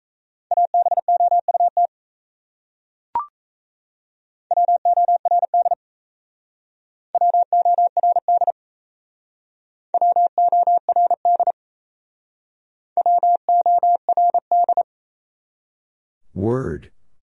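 Morse code practice of words from a top-100 word list, sent at about 28 words per minute: rapid, steady mid-pitched beeps grouped into short words with pauses between them. A brief click comes early, and a falling sweep sounds at the end.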